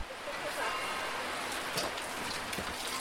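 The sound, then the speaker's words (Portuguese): Steady rain falls continuously, a dense even hiss of drops pattering on surfaces, with a few sharper splashes standing out now and then, as a market day begins in the parish of Sobrado. “É com os risos, as saudações do costume e uma chuva que não dá tréguas que começa mais um dia de feira na freguesia de Sobrado.”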